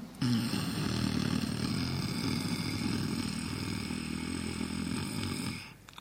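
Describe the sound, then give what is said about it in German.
One long, steady inhalation with a rough snoring rasp in the throat during a breathing exercise, lasting about five seconds at even loudness before cutting off, alone with no talking. “Atmet ein mit diesem Schnarchklang.”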